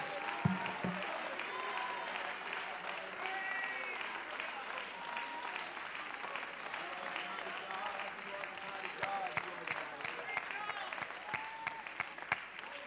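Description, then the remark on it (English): A large church audience claps steadily and continuously in praise to God, a dense wash of hand claps with scattered sharper slaps, while many voices cheer and shout underneath throughout. “Clap your hands, oh you people, and shout unto God with a voice of triumph.”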